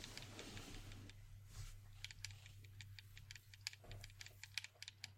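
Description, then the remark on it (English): Rapid plastic clicks and taps from PlayStation controller buttons being mashed, irregular and quiet, over a low steady hum. No one speaks. “Uh, sounds like you're slapping a PlayStation remote right there.”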